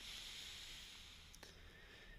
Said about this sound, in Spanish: Puedes respirar de esta forma las veces que necesites, inhalar profundo.